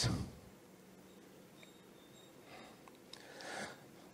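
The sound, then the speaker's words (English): Tearful sniffling from someone crying tears of joy: a sharp sniff at the start, then a couple of wetter, breathy inhales a few seconds later, fairly quiet, with no talking. “These are, te- these are tears of joy now. These are not tears of sadness.”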